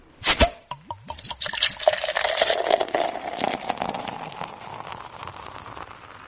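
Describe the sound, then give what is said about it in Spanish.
Beer is poured into a glass in a home living room in San Juan, Argentina, starting with a few sharp clinks and splashes, then a steady gurgling stream whose tone shifts as the glass fills before trailing off. “Permítanme servirme un trago.”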